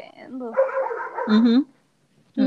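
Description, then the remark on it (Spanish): A dog barks in short, loud bursts, with a pause before another bark, while voices talk at the same time. “hay un perro ladrando, perdón.”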